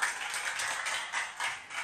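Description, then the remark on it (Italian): Applause from an audience, a dense patter of many hands clapping steadily with slight swells in intensity, moderately loud and with no voices over it. “Ecco lì, che sono tornati gli applausi.”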